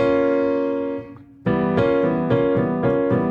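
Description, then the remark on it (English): A B flat minor chord rings out and slowly fades, then after a short pause it is struck again about five times in a steady rhythm, clear with no talking. “A tritone away is B flat. This is B flat minor.”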